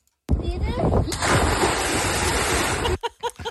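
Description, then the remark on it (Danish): A loud splash as a person dives into water, followed by a few seconds of churning, rushing water. At the end, a voice briefly starts speaking. “Ja, og det var to meget forskellige plask.”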